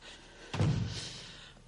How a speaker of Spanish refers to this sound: Se oye una puerta y ambas se agarran sus manos con fuerza.